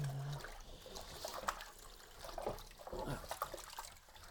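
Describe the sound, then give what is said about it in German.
Running water splashes and trickles steadily while pans are rinsed, with occasional soft clinks and shifts in the flow; no one speaks. “Jetzt nochmal kurz hier die Pfannen spülen.”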